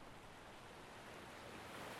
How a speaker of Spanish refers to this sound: No recuerdo la hora, pero la noche era tranquila y el agradable sonido del mar me animaba a quedarme un rato, disfrutar un poco de licor y lanzar caña al mar.